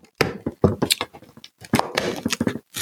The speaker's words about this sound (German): So, ich mache die, ich mach jetzt auf achte Tür.